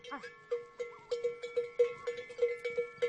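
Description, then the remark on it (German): Cowbells clank in a loose, uneven rhythm as a herd of cows moves along with a young herder in the highlands of Lesotho, a dozen or so ringing metallic strikes with sustained, overlapping tones at a moderate level. “Wenn er pfeift, dann folgt ihm die Herde.”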